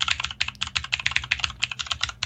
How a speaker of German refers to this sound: Wir haben, äh, wir haben eine mechanische Gaming-Tastatur mhm. und äh, sieht auch sogar ganz nett aus. Das ist jetzt die hier.